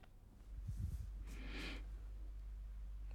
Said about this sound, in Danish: Og så bare tage en øh, rigtig god, dyb vejrtrækning helt ned i maven.